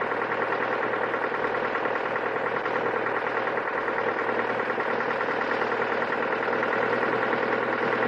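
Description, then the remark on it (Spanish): A truck engine drones steadily while a young man drives the truck, a constant low rumble with a mid-pitched hum and faint rattling vibration, unbroken and fairly loud throughout, with no voices. “en el camión, Miguel está despierto y mirando al techo mientras el joven conduce muy concentrado”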